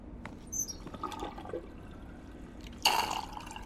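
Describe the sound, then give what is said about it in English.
A faucet sputters and drips in uneven spurts after the water has been shut off, then gives one louder, hissing gush of air and water before trailing off, with no voices. “The water's off.”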